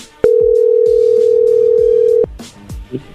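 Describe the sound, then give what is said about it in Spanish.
A telephone dial tone, heard while redialing someone who has hung up, sounds as a loud, steady, unbroken hum held at one low-mid pitch for about two seconds, then cuts off, leaving faint background clatter. “Ya colgó Choco. A ver, márcale de nuevo.”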